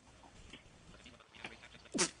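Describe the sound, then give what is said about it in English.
A single sharp hiccup pops out near the end, fairly loud, after a stretch of quiet room tone with faint, indistinct murmuring. “Hiccups.”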